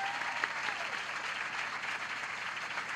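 An audience claps steadily for three seconds, a dense, even wash of many hands with no voices rising above it.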